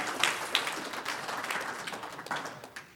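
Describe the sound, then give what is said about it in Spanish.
A crowd applauds steadily for about three seconds, a dense wash of many hands clapping at once, fairly soft overall with a few sharper claps standing out near the start. “Un aplauso a estos tres que tienen.”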